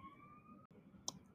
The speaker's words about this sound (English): sorry that's a siren on my end okay i don't know how long it's gonna take